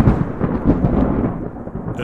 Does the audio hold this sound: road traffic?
no